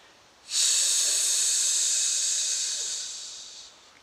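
A long, deep breath drawn in through the nose during a breathing exercise, filling the back of the lungs, a steady airy hiss lasting about three seconds that slowly fades, with no talking.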